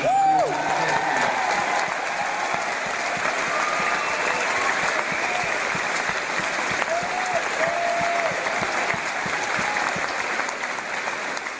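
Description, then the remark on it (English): Sustained, dense applause from a large crowd in a hall receiving Jeremy Corbyn, with cheering and whoops rising above it, the clapping steady and loud throughout with occasional shouted voices. “Inside the hall, Jeremy Corbyn was received with rapture and sent off with a roar of support.”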